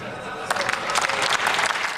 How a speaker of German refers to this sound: Tja, man hört's. Die einen lachen, die anderen klatschen.